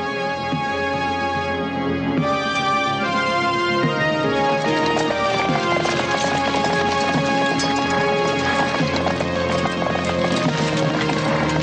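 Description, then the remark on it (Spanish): Knights' horses clip-clop steadily as they ride into a medieval castle through an arched gateway, over a dense, sustained tonal backdrop, the hoofbeats growing busier and more prominent in the second half, with no speech. “Mientras, varios individuos se asoman al divisar a los caballeros que entran en la fortaleza por el arco de un portón y se dirigen hacia ellos.”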